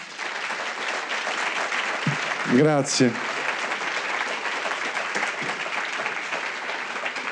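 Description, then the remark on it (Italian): Steady, dense applause from an audience welcoming Jacopo Fo at the Spazio BCC FVG on Viale Trieste. A continuous crackle of many hands clapping fills the whole stretch, with a single short spoken word from a man breaking through briefly midway. “Buonasera, allora iniziamo con un grandissimo applauso per Jacopo Fo.”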